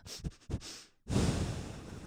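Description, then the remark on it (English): A voice imitates a dog sniffing: a few quick, sharp nasal inhales, a brief pause, then one long, breathy exhale. “I love more than anything a dog sniff.”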